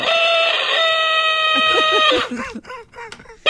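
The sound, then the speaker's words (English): A loud rooster crow rings out from an alarm clock, one long bright call held for about two seconds, followed by a quick run of choppy clucking bursts. “She passed away in 2015, but we still treasure this alarm clock.”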